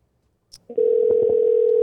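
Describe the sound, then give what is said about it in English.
A short click as a phone line picks up while a call is placed to a guest for a radio show, then a loud, steady, unbroken dial tone hums at a single low-mid pitch until the end. No one speaks. “I gotta get his number here together.”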